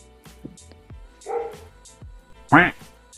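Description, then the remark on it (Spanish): A dog barks a few times, with a sharp, loud bark near the end following a softer, whiny yelp, amid faint background noise. “Está como hablando tu perro.”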